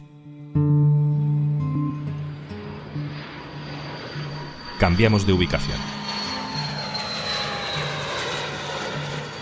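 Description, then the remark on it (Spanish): The engine of an airplane carrying immigrants from Florida to Martha's Vineyard, an island off the US east coast, roars loudly and steadily throughout, with a high whine slowly falling in pitch. A voice speaks briefly over the engine noise partway through. “Este es el sonido de un avión que trasladaba también hace unos días a inmigrantes desde Florida a una isla de la costa este de Estados Unidos que se llama Martha's Vineyard, que es un lugar de veraneo exclusivo de empresarios y políticos.”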